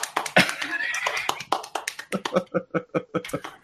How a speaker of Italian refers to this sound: Si sta suonando la pancia.